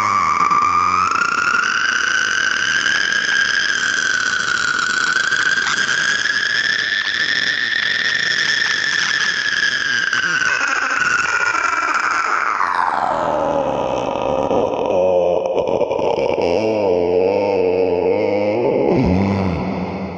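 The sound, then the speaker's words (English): A single long, drawn-out vocal groan made while inhaling, held loud for about twenty seconds at a strained high pitch before sliding down lower near the end. “breathing in that whole time, I swear to God.”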